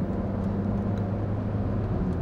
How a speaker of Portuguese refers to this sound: Então me desculpa aí se o barulho do carro, dos carros forem. Se você gostar de carro, de moto, de motor, não vai incomodar tanto não.